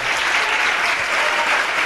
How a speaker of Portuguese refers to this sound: Então desocupe as tuas mãos e dê a melhor salva de palmas que você já deu em toda a sua vida.